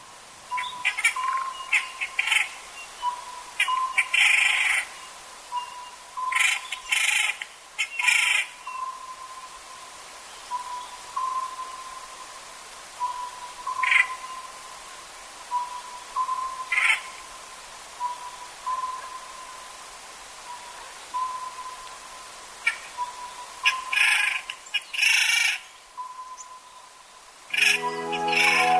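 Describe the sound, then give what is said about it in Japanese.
An Oriental scops owl calls repeatedly in a dark forest before dawn at Yunishigawa, its low hooting notes continuing steadily while sharper, higher chirps from other birds burst in and out. “この葉ずくの鳴き声が夜明け前の暗い森で一段と高まると東の山の葉が白くなってきました”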